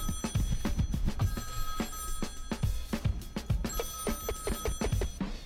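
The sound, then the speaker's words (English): A telephone bell rings steadily over a busy, rhythmic backdrop with thumping low beats, its bright ringing tones holding through most of the few seconds at moderate loudness. “Hello? Hello? Hey. The freak phone.”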